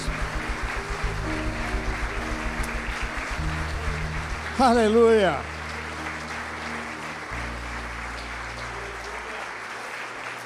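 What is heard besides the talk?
audience applauding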